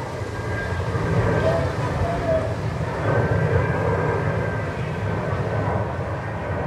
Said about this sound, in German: Ein Flugzeug unterwegs zur Landung nach Tegel. Alles wie immer.